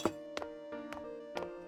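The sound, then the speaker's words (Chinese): A thick glass bottle from a liquor cabinet is struck again and again in a kitchen to break it and get paper notes out: five sharp knocks at an uneven pace, each one leaving a sustained, bright ringing tone. The overall level is fairly quiet, with no voices. “我只好悻悻然将瓶子带到厨房，狠狠摔碎。这瓶子还真厚实啊，着实费了我一番功夫，敲得我耳膜发疼，才取出这三张纸条，还搞得满屋都是玻璃碴。”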